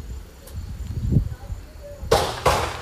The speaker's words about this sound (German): Abgesehen von den Schüssen, die immer wieder zu hören sind.